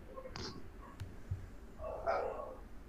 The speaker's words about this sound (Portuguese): Eu só chamo dos, dos vizinhos aqui, porque eu moro em ambiente de, de casa. Aí fica os cachorros, não late um, late todos. É foda.